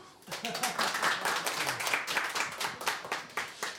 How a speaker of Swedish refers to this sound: En liten välkomstapplåd vill jag höra först.